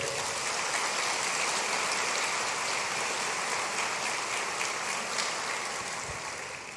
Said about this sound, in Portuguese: Você pode aplaudir o Rei da Glória.